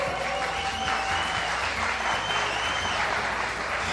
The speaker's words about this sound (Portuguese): Muito boa noite! … no palco! Salva de palmas!